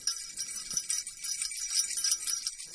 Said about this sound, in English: All right. That's uh, okay. uh, that's a few uh, medium-sized bells with a couple uh, baby-sized bells